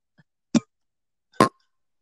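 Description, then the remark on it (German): A very large Merry Christmas mug of tea and a glass clink together twice in a toast, two short knocks about a second apart, the second ringing briefly. “die Tasse klingt besser als dein Glas.”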